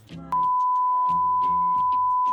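A steady, high-pitched censor bleep runs for about two seconds, a single unbroken tone laid over a man's voice talking underneath it.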